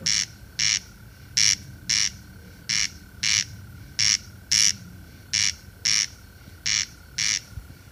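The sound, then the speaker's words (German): A corncrake's rasping territorial song repeats in a steady, evenly spaced series of dry double krrt-krrt bursts, loud, over a low rumbling background with no talking. “am ehesten lässt sich das eigenartige Geräusch dieser Reviergesang des Wachtelkönigs mit der Osterrage vergleichen”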